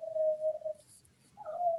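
A dog outside a house lets out two drawn-out, high whining howls separated by a short pause, with no one talking.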